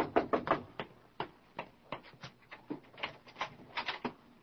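A porter knocks on an office door, a rapid run of sharp raps that continues in uneven bursts, clear, with no voices.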